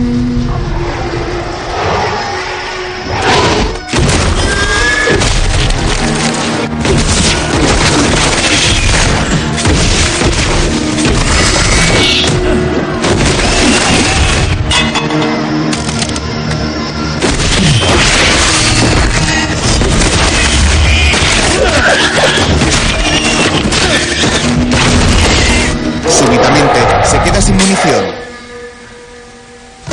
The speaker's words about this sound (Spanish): John aparta la silla y comienza a avanzar por la sala, disparando a todos los demonios que le salen al paso.